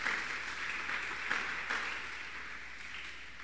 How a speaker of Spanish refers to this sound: ¿Cuánto le dan un aplauso a Él por su bendita misericordia?